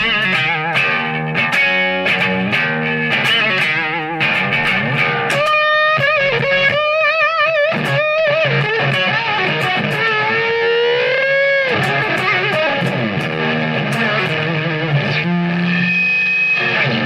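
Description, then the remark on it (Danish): Heavily distorted electric guitar plays loud, continuous riffs by a guitarist, with bent and sustained notes, quick runs and a few short breaks, and no voices; a guitarist from a band plays them as a tribute to a guitarist. “Og vil du ikke lige spille nogle …-toner til sidst?”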